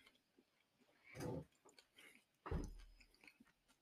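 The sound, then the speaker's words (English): Wet chewing noises with two louder crunchy bites standing out, separated by softer mouth sounds and quiet gaps, with no talking. “I'm sorry, I'm chewing.”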